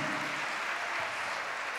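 An audience applauds the Lord steadily, a dense, even wash of many hands clapping at once with no individual claps standing out, continuing without pause and without voices.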